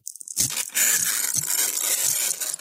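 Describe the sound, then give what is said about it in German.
Coarse sandpaper rasps steadily across a surface, a harsh, hissy scratching full of bright high-pitched grit, with a few short strokes at the start and brief low thumps along the way. “Es ist so ein Schmirgelpapier, Sie sehen das.”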